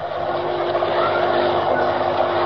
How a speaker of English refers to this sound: Already the line of trucks creeps up the slope. Behind them, the swaying, rocking bus, brightly lighted, eager boys and girls, knowing nothing of the treacherous mass of rock and earth poised on the heights above.